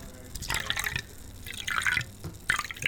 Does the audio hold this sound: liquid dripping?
yes